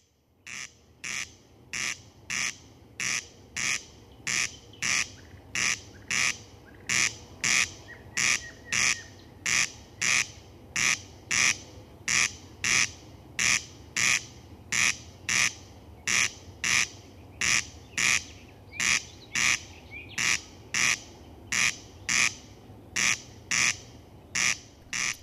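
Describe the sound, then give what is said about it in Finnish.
A summer night bird calls over and over in a steady rhythm, played in the Radio Suomi studio. Each call is a loud, harsh, high rasp, about thirty in all, with a faint low hum beneath and no talking. “Jossa jatketaan yölauleja, yöhuutelia iltaa seuraavan tunnin ajan.”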